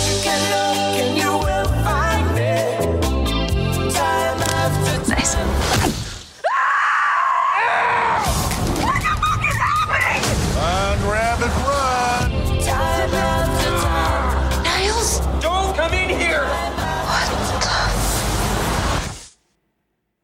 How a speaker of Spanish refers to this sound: Lo que acaban de escuchar fue un fragmento del trailer de la película Palm Springs, que es una película que está ahorita en Hulu